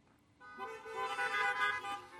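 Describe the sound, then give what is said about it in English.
Several car horns honk together in a sustained, overlapping blare of bright, buzzy tones that starts after a brief quiet moment and continues loudly to the end, with no one speaking. “If you're, if you're happy about that, could you say amen or a beep beep?”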